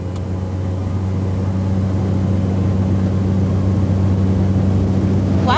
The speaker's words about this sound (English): Fort Chip is only accessible by boat, plane, or ice road. So the next morning, I took a nine seater prop plane to get there.